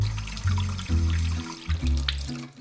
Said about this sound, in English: First step is turn on a hose. The water will come out really fast at first.